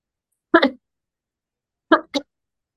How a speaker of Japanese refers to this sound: すいません、ちょっと咳が、すいません。